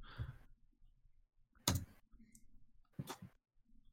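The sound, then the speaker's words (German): Loud laptop keyboard typing comes in a few sharp, irregular bursts of clacking keystrokes, separated by brief quiet pauses, with no one speaking. “Wenn ich an meinem PC, also an meinem wundervollen, sehr guten, wirklich, wirklich guten Laptop tippe, dann hört sich das sehr laut an.”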